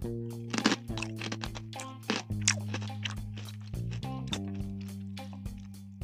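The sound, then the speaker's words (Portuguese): Close-up crunching of a crisp, small, finger-shaped salty snack stick, a series of sharp bites followed by steady chewing right next to the microphone, with no talking. “Eu vou inclusive degustar um aqui pertinho do microfone, ver se o barulho pega.”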